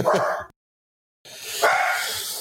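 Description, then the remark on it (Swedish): Dogs barking loudly: a short burst of barks, a brief silence, then a longer, dense stretch of overlapping barking and yapping. “Nu är det för ja. mycket hundar och käbbel.”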